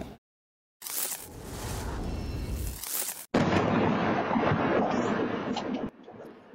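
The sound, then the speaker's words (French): A violent explosion that destroyed four houses under construction early in the morning in Orléans, an eastern suburb of Ottawa, roars in after a moment of silence, then a second, louder blast hits midway and rumbles on heavily before cutting off. Loud, with no voices. “On d'entendre cette violente explosion qui a détruit quatre maisons en construction très tôt ce matin à Orléans.”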